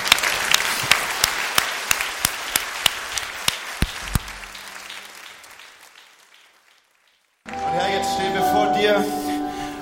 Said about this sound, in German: Kommt, lasst uns den Menschen mal einen Applaus geben.